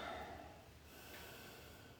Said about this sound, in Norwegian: Jeg puster så tungt at jeg nesten blir svimmel. Nesten så jeg føler at jeg nesten snart svimer av.